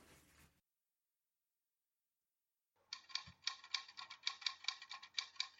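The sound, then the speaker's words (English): After a short pause, a typewriter clatters away in a quick, steady burst of crisp keystrokes lasting about three seconds, fairly loud with no voices. “At the same time, another revolution was happening, this one with words on a typewriter.”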